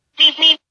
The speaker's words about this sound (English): Okay, sorry about the beep beep. That's my phone there. if you heard that, I'm sure you did.